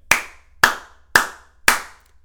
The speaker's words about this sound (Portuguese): Três palmas para nós. Porque acho que é mais que suficiente.